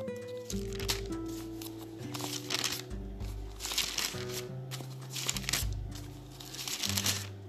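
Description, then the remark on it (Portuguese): Thin Bible pages flip in a quick series of papery, crinkling rustles, fairly loud, continuing for several seconds over a soft, steady musical tone underneath. “Deixa eu deixar você ouvir o som das páginas passando.”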